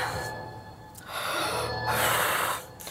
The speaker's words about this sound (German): Atmen.